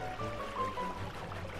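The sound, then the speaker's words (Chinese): Water splashing and churning as a fox carrying the gingerbread man swims toward the far bank, a steady, continuous wash for under two seconds, moderately loud, with a faint thin tone drifting over the top. No one speaks. “狐狸啊，载着姜饼人跳进水里，向对岸游去。”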